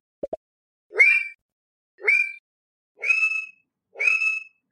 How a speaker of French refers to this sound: je veux bien croire que toutes les femelles grenouilles gluantes trouvent ce chant extrêmement attirant